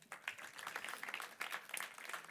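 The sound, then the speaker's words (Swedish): An audience applauds: a dense, steady patter of many hands clapping for a couple of seconds, crackly and moderately soft, with no voices standing out. “Ge dem en applåd, hörni.”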